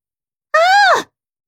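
A single short, voiced grunt from a man waking from sleep, lasting about half a second, its pitch rising slightly and then dropping off at the end, like a sleepy murmur, alone with silence on either side.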